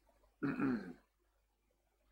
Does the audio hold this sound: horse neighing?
no